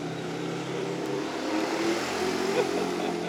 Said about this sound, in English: It's another quad bike in the lovely village of I Annweiler. Indeed, it's quite the day for quad bikes.